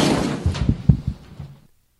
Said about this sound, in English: Yeah, that's the sound of a man walking away. No answer by Mike Tomlin.